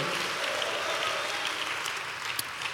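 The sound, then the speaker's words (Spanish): A church audience applauds to God steadily, a dense wash of many hands sustained at an even level for a few seconds, with no voices standing out above it. “Dale un aplauso a Dios por eso, amado hermano.”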